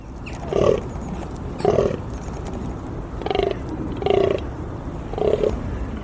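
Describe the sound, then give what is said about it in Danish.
A large red deer stag bellows in the rut, giving five short, deep grunting roars at uneven intervals over steady outdoor background noise. “Det er en stor hjort i brunst.”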